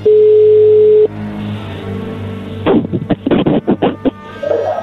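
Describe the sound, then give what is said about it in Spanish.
A phone call is being dialed again: a steady telephone tone holds for about a second, then a quieter line hum continues before a series of short, irregular bursts of dialing and line noise take over. “Ahí se está marcando otra vez.”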